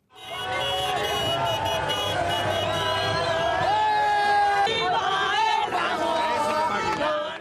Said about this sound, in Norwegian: De begynner nok å bli vant til å feire, de spanske supporterne som tuta begeistra med bilene sine i Madrids gater i natt.